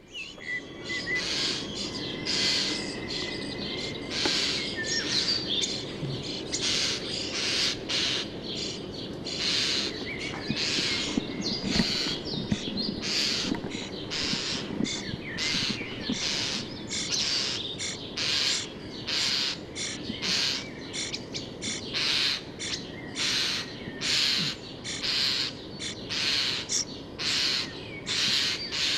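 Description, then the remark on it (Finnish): A European starling gives harsh, rasping alarm calls, a steady run of loud scratchy bursts repeated roughly every second with no pauses, over a low murmur of background noise. “Mutta sillä on tuommoinen rääkyvä ääni, niin tässä olisi vähän semmoista raaempaa kottaraisen varoitusta.”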